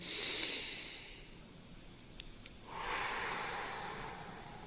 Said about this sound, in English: And breathe out. Just do four of those deep breathing exercises, reduces anxiety, and it transfers the blood that's circulating in your kind of stomach, the knots to your head, the thinking